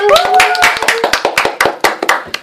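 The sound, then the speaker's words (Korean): A small studio audience claps quickly and unevenly at the opening of the youth talk show Coco Hanjan-ui Yeoyu Cocoa Talk, sharp overlapping claps that thin out toward the end, with a brief high cheer-like vocal tone at the very start. “신개념 청소년들의 토크쇼 코코 한잔의 여유 코코아톡입니다 박수!”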